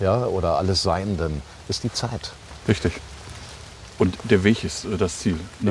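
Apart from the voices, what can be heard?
heavy rain falling outdoors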